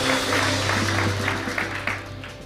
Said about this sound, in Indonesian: Tepuk tangan paling meriah bagi Tuhan, katakan amin, saudaraku.